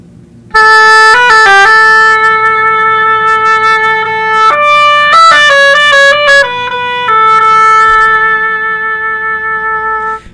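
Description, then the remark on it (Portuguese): A short oboe solo plays a single melodic line, with long held notes and a quick flurry of changing pitches, bright and reedy, with no voices. “O, o oboé ele descende das charamelas,”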